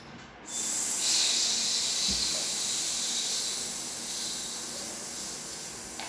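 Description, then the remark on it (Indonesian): A voice sounds the letter S as one long, steady hissing "sss", bright and breathy, sustained for several seconds with only slight fading toward the end. No words are spoken. “Coba bunyiin huruf S.”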